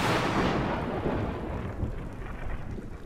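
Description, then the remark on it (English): A loud crack of thunder that rolls into a deep, sustained rumble, its brighter edge fading over a few seconds while the low roar lingers. No voices. “Then, a clap like thunder.”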